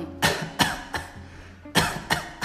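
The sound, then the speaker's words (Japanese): A person reenacts the dry, hacking cough they had been troubled by for nearly two years: two bursts of three short, harsh coughs each, fairly loud, with a brief pause between the groups and no talking. “もうね2年近く、うんえーと、ちょっと悩んでた別の症状がありましてそれが空咳空咳あの咳が、”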